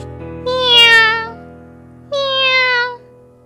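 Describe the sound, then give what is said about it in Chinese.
The cat Weiwei from the children's story Hello, Night Spirit (你好，夜精灵) meows twice, seemingly asking to go out: two drawn-out, high-pitched mews separated by a short pause, the first slightly longer and rising then falling, over a faint low hum. “喵喵，微微似乎在问：“出去吗？”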